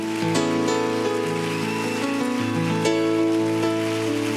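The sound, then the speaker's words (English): A crowd claps hands unto the Lord in a dense, steady patter over sustained organ or keyboard chords, the applause a continuous rain-like wash at full volume with no one speaking. “Come on, if you're excited, can you clap those hands a little bit louder?”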